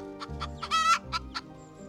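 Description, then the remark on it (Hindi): Hens cluck in a quick, uneven series of short calls, one drawn-out squawk standing out among the brief clucks, with no talking. “मुर्गियां खिड़कियों की चौखट पर बैठी”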